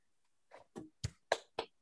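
Hands clap five times in a fairly steady rhythm, each clap a sharp, crisp smack that grows a little louder after the first couple, with brief silence between them and no talking; the clapping is in praise of the RCR race cars.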